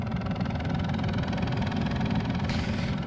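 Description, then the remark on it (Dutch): A helicopter engine drones steadily and loudly with a fast, rhythmic low thumping throughout, constant, with no voices, ending abruptly. “nog even een helikopternieuwtje. En het geluidje zal ik straks nog in monteren, ik moet helaas toch weer gaan monteren”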